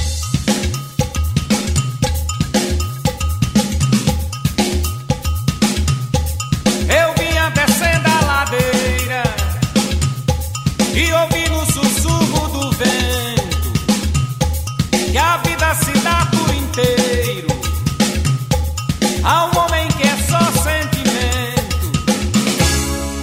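A loud, full-band recorded song plays its instrumental opening, driven by a steady percussive beat with bright cowbell-like strikes and layered melodic lines, with no singing or talking.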